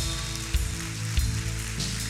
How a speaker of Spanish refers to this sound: Ahora sí, el que lo crea, déle un aplauso al Señor.